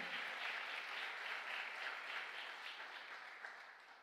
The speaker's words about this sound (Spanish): Vamos, dale el aplauso fuerte.